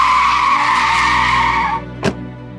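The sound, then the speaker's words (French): A car brakes hard to stop in the middle of traffic, not on the roadside, on the Francilienne not far from the Paris périphérique, with a loud, sustained tire screech lasting nearly two seconds, then cuts off, followed by a brief sharp thump. No one speaks. “il dit arrête-toi, arrête-toi, en plein milieu de circulation, hein. même pas sur le bas-côté, tout ça.”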